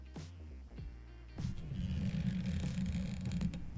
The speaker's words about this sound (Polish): zniekształcać garnki w swoich rękach, bo ma taką siłę